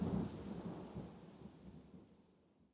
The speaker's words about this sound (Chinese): 顿时，屋内一片寂静，但闻窗外风声呼啸，雨点敲打着玻璃，噼啪作响。不知何时，雨已渐大。